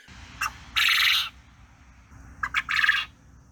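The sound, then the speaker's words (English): A male quail calls twice, each call a short sharp note followed by a longer, buzzy burst, fairly loud over a low background rumble. “that rooster sound is about the the volume and and kind of tenacity of like a chickadee or a bluebird.”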